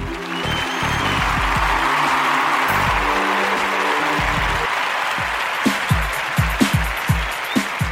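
round of applause

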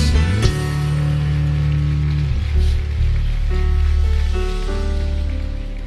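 audience applause

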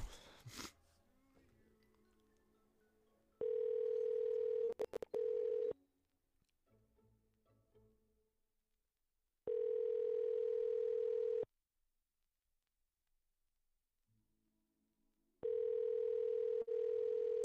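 outgoing phone call ringing

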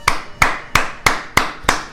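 hand clapping

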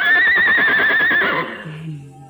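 horse neighing

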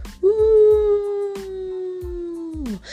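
dogs howling

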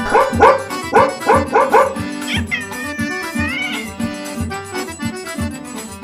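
puppies barking

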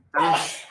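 sneeze

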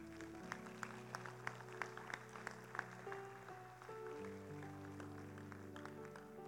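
audience applause

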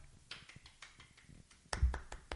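people clapping hands

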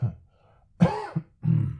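cough

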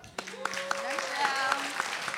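applause

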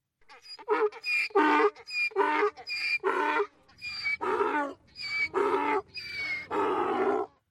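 donkey braying sound effect

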